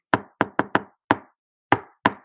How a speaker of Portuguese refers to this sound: E eu bati na porta, gente, fazendo uma, uma batida muito uh, singular, né? Fazendo.